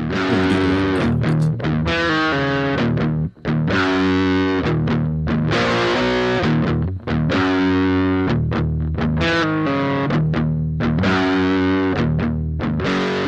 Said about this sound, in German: Das heißt, auch hier wieder wurde Rockmusik gespielt und vor allem wurde ihnen da relativ lauter Metal, also wirklich in voller Lautstärke